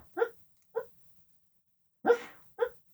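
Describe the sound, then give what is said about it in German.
A dreaming dog gives four soft, muffled little barks, two early and two later in quick succession, with short whimpering tones. The sounds are faint, with no talking. “Ja, falls sich jemand wundert, wo die Geräusche herkommen, mein Hund hat gerade einen Traum.”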